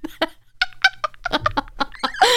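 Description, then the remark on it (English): A rapid series of exaggerated, throaty gulping noises made right up against a microphone, about eight loud clucking-like bursts in a row, with no talking. “The father gulped, because you can hear that over the phone, and replied, Gulp?”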